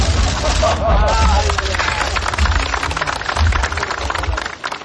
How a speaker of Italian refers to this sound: Avete sentito gli applausi, prima ancora le macchine fotografiche che riprendono la stretta di mano tra Kim, il presidente sudcoreano Moon Jae-in.